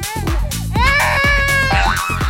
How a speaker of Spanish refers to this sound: Sí, y es que veo una, una vocecita así como de niño llorando o recién nacido.